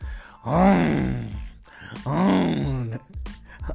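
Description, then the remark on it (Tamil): A man imitates loud snoring with his voice, copying the snoring of fellow passengers in sleeper berths, two long rasping, groaning breaths in a row, each swelling up and then trailing off. “அது ஒரு சத்தம் மூணு பேரும் நைட்டு பூரா சங்கீத ஸ்வரங்கள் சங்கீத ஸ்வரங்கள் அப்படின்னு மூணு பேரும் மாறி மாறி மாறி மாறி மாறி மாறி கொரட்ட கொரட்ட அது என்னது கொரட்ட கான்செர்ட் நடத்துகிறேன் எனக்கு இவன் ஆஃப் ஆவான் அவன் ஆன் ஆவான் அவன் ஆன் ஆவான் இவன் ஆஃப் ஆவான்”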